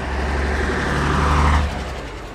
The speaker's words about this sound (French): Lorsqu'elle répète, je me promène seul dans Londres, je découvre la ville du haut d'un bus rouge à impérial.